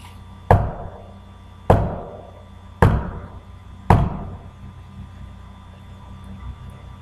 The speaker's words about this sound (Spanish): De repente, justo antes de que fuera el amanecer, justo antes de que sonara el reloj despertador, escuché nuevamente los golpes.